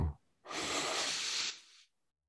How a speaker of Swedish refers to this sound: Jag kan ta ett djupt andetag. Precis så.